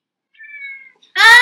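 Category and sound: animal, cat meowing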